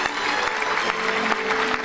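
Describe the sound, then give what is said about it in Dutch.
An applause sound effect for the show Weekend Ede: steady applause from a crowd, a dense wash of many hands clapping at an even, fairly loud level with no voices on top. “Jawel, mag applaus bij. Ja, komt er maar. Applaus.”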